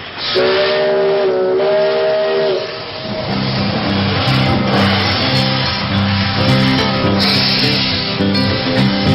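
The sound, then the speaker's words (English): A steam locomotive sounds a loud, steady whistle for a couple of seconds, then rumbles past with rhythmic chuffing, hissing steam and clattering wheels that continue throughout. “I hear wheels of steel coming through, pulling cars for passengers like you.”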